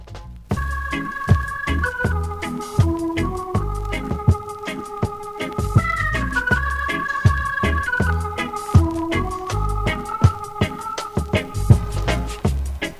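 The instrumental reggae intro that opens an album plays: sustained melodic lines glide over a steady, punchy drum beat and deep bass, loud and continuous for the whole stretch, with no voices.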